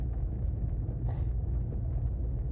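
Steady low engine and road rumble fills the cabin of a car being driven to work in the rain on 1 November, constant and fairly loud, with a brief whooshing swell midway and no one talking.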